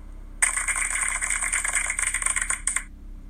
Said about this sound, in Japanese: はい、えー、効果音で拍手を入れてみました。